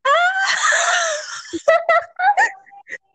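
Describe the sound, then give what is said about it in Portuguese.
A voice lets out a loud, drawn-out scream lasting over a second, mimicking a shriek, then breaks into a few short, breathy bursts like laughing gasps. “Quando a visão acabou, eu gritei.”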